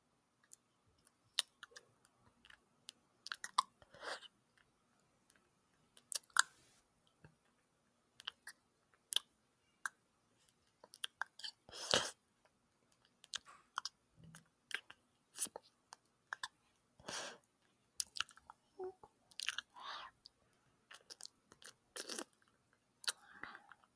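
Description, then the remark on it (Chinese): A mouth imitates kissing, like a deep tongue kiss, as a live demonstration: a long run of soft, wet smacks and lip clicks in irregular bursts, some quick clusters and a few sharper pops, with brief pauses between and no talking. “对， 那我们先模仿接吻声好了。”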